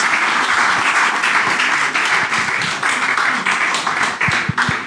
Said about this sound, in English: Let's give God a clap Não, vamos dar um salve ao Senhor. Thank you, Lord. Thank you, Jesus.